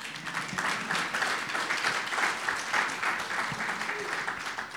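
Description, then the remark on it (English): A crowd applauds in a steady, dense wash of clapping that holds an even loudness for the whole stretch, with no voices breaking through. “You can Badass. give her another round of applause yeah.”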